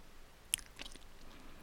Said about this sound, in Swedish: Mycket choklad och väldigt, väldigt kraftig choklad men ändå på ett sådant sätt att det är jättegott och inte blir för mycket. Men att man kan inte äta så himla mycket av den, så jag tänkte jag skulle ta en liten paus nu och ta några tuggor till.